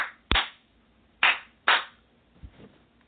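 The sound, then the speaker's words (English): Three sharp, loud hand claps at uneven intervals, followed by two softer, quicker claps, with no talking in between, done as a clearing practice. “Great, I do more clapping, clearing on that.”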